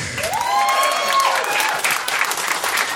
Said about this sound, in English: Big round of applause for all of your round one comics. Thank you guys so much.